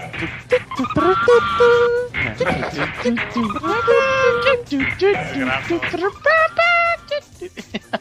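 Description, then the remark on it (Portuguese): A voice imitates the noise of the Frank Puxa Frango chicken character, with a string of loud, strained, honking squeals in uneven bursts, filling the whole stretch. “Como é que o o frango fazia?”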